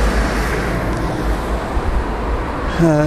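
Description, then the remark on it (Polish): A yellow Fiat car rolls past on a street, its broad engine and tire rumble steady, with a brief voice sound creeping in right at the end. “E, Fiat żółty przejechał sobie teraz taki, taki z tych śmiesznych, ja nie wiem, jak on się nazywałem, Fiat 700 czy coś tam.”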